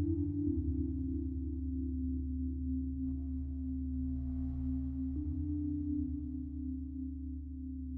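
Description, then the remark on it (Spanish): A wake-up alarm clock sounds a sustained electronic alarm tone steadily and at constant loudness for the whole stretch, shifting pitch a couple of times, with no pauses and no talking. “El día de hoy le damos gracias a nuestra alarma despertadora”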